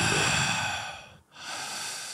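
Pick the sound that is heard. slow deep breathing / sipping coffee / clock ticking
slow deep breathing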